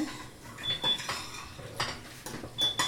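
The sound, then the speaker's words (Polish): A metal teaspoon scrapes and clinks against the inside of a pot in short, repeated strokes, gathering a sugar mixture from the edges while stirring, with a few brighter metallic rings, fairly quiet, with no talking. “Co jakiś czas zbieramy z brzegu łyżeczką.”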